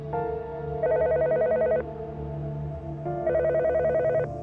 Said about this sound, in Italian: Suona il telefono. Nada non risponde. Il signor Soracco alza la cornetta dopo un certo numero di squilli nessuno dall'altra parte.